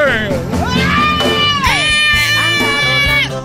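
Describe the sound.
A loud, sustained crowd ovation as a boxer enters the ring: many voices cheering and shouting together in a steady roar, with rising and falling yells and whoops cutting through.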